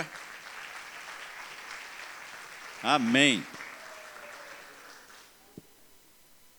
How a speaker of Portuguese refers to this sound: Dá uma salva de palmas esse povo aqui, gente.